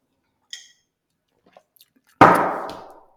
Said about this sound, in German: Jetzt erstmal einen Schluck Wasser darauf.